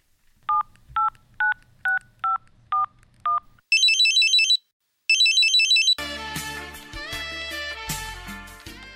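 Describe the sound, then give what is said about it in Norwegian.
Seven short telephone keypad beeps in a quick, even rhythm as a caller dials into the Stavanger municipality phone menu, followed by two bursts of a trilling electronic ring and then steady hold-style music. Clear, with no talking. “Du har tastet 1 for tømmerkalender.”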